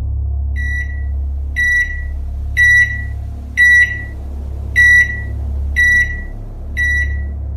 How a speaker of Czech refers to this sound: Najednou jsem uslyšel zvuk displeje na mikrovlné troubě. Jakoby se resetoval. Zazvonil celým domem a já jsem vyděšeně vykřikl.